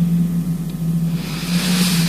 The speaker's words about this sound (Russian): Мастер, э, будьте добры, ветер. Прекрасно.